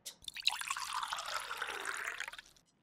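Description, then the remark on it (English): Water pours steadily into a pot for about two seconds, a splashy gurgling stream that rises in pitch slightly as it fills, then stops abruptly. “Someone pouring water into a pot.”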